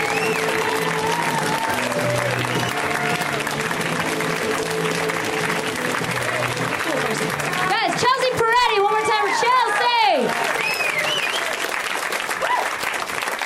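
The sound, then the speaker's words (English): A crowd gives comedian Chelsea Peretti loud, sustained applause, steady clapping lasting the whole stretch, with music playing beneath at first and a burst of whoops and cheers near the end. “Let's hear it right now for Chelsea Peretti, guys. Give it up for Chelsea.”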